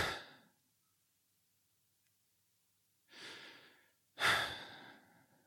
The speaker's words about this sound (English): Now, most people are not even breathing at 20 times a minute. Most people, you should hear that kind of pause after they exhale. It'll be like,